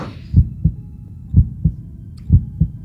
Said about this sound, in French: il dresse le comte Le Brime, qui est derrière le tonneau et qui continue, lui aussi, à mettre ses mains sur ses oreilles et à sembler entendre le battement de cœur.